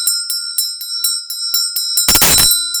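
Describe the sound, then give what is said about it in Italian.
A ritual hand bell rings alone as an offering of sound in a ritual practice, in quick, steady strokes, about nine clear chimes over a sustained shimmering tone, ending with a brief harsh clattering burst. “E l'offerta del suono, se di solito si suona la campana, no?”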